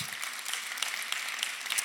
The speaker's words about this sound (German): Vielleicht geben wir uns nochmal gegenseitig einen Applaus, oder? Wenn wir schon dabei sind.